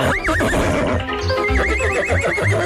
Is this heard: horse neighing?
yes